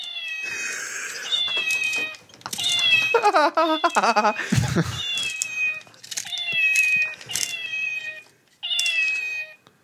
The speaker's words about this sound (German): Und wie man hört, macht die Katze Miau wenn man ihr den, den Stift in den Arsch steckt.